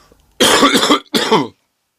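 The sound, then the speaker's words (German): Two loud coughing fits in quick succession from a person who has been smoking too much, each a rough, raspy burst lasting about half a second, followed by silence. “Du bist die ganze Zeit am Husten und am, am, am Kutzen und das ist, das gefällt mir gar nicht.”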